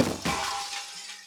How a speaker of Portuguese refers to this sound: Porque quebrou um bagulho de vidro. Cara, ele estilhaçava um bagulho de vidro, como se fosse um jarro, assim.